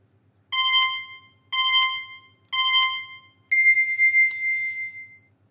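Three evenly spaced electronic beeps, each lasting about a third of a second, followed by a longer, higher tone, the classic countdown pattern. They're clear and close, with a faint low hum underneath and no voices.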